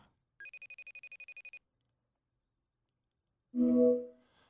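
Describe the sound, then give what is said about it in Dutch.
An outgoing phone call to a firefighter rings once: a bright, rapidly pulsing electronic trill lasting about a second, then silence before a voice answers on the line. “Eh, ik bel je even voor de podcast van de orkaan.”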